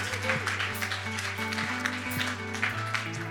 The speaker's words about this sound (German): Come on, let's give him another round of applause. Lass ihn nochmal einen Applaus geben. Well done. Gut gemacht.